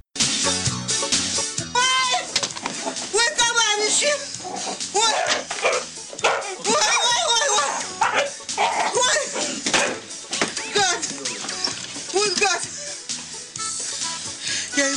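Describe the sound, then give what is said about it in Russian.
A police dog, Rex from Kommissar Rex, barks and whimpers with high, wavering yelps in quick bursts, fairly loud, mixed in with people talking and other busy background sound throughout. “Полицейский пес, который зачастую выполнял работу лучше людей – и также любил воровать булочки с колбасой у коллег.”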